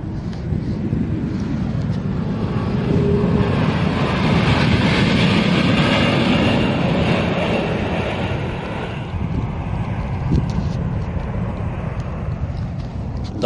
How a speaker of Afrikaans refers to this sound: die eerste outomatiese landing wat uit eh, die vliegtuig self by uh, die OR Tambo lughawe uitgevoer het en uh, die neus is weer op en uh, sy draai skerp na regs om uh, vir 'n tweede keer hierdie stelsels te toets